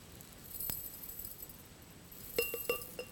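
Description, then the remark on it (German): Glass jars clink together during a demonstration, one of them of dark glass: a single knock early on, then a quick run of three or four bright, ringing clinks near the end, with no one talking. “Dieses Glas ist nämlich sozusagen schon von Beginn an nicht, nicht so leer, nicht so rein, man kann direkt durchschauen, das ist richtig schön eigentlich, sondern da ist quasi aus diesem dunklen Glas”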